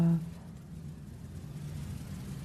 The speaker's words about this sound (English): I'm going to ring the bell. And I want to invite you to stay in your meditation for a moment. Let the sound of the bell be part of what you're aware